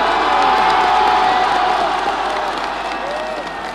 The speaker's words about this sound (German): Münchner, liebe Sportfreunde, der Münchner Fußball und seine treuen Anhänger haben Grund zum Jubeln. Der deutsche Meister 74 und der Gewinner des Europacups, der Landesmeister 1974, heißt Bayern!